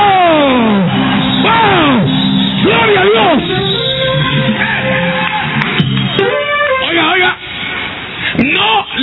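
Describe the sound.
An audience erupts in a loud, sustained war cry at the preacher's call, many voices shouting, yelling and whooping together with wavering rises and falls, energetic for about nine seconds.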